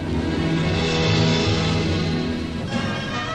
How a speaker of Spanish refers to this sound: Muy alto, el sonido de un gran pájaro metálico acercándose le obligó a agazaparse contra la tierra húmeda. El ruido más penetrante que el trueno lo hizo estremecer todo, pero nada ocurrió